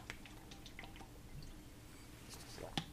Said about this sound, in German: So. Saft mit Selter, das hm, schmeckt total Schön, gut. Schön, ne? Ja. So, jetzt haben wir was getrunken.